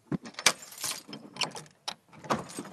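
A heavy château door to a room of equipment is unlocked and pushed open: a jangle of keys, several sharp metallic clicks from the lock, then a scraping creak as it swings, with no voices.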